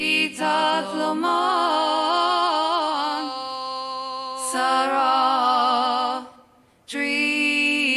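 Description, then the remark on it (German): An AI voice clone, a voice model, trained on an artist's own voice, sings a flowing melody of long, sustained notes with slight vibrato, loud, with a few brief breaths and a short pause near the end. “I trained an AI on my own voice, and now she can sing anything in multiple languages.”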